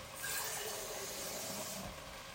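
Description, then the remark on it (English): Water pours steadily into a passata bottle, a continuous hissing, splashy rush that holds at an even level for a couple of seconds, with no one talking. “but what I usually do is when you've put the bottle of passata or the or the or the can of passata, whatever it is, right, put some water in it”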